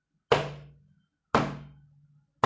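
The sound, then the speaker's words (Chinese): Three heavy thuds of something banging against a door, evenly spaced about a second apart. Each is a loud, sharp impact followed by a low, booming resonance that fades out. No voices. “这种就是撞的声音，你可以就直接用啊实际现场的东西，然后营造一种啊撞门或者甩门。”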